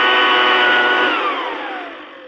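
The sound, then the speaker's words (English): A 200-mile-per-hour cordless leaf blower roars with a loud, steady high-pitched whine, then begins to wind down, its pitch sliding lower over the last second. “Drown her out with a 200 mile per hour cordless leaf blower.”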